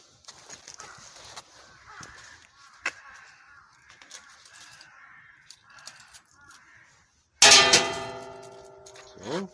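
After several seconds of quiet outdoor ambience with a few crow caws and small clicks, the bell of a small shrine is shaken hard, giving a loud, jangling rattle with bright ringing tones that slowly fade; a small coin is tossed in.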